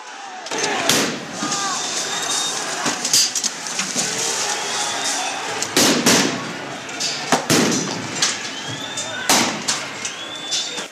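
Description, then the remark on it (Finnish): A chaotic street riot between protesters and riot police in Madrid, March 2014, with sharp, loud bangs going off repeatedly at irregular intervals, like firecrackers or blasts, over a constant roar of shouting voices. “Nämä äänet ovat maaliskuulta 2014. Mellakka poliisi jäi Madridissa tuolloin pahasti alakynteen.”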